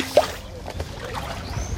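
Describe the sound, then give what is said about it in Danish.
Stones, with a few small zebra mussels on them, are lifted out of water, with a short splash followed by quiet, scattered drips and trickling over a faint background hum. “Og jeg tager nogle sten op.”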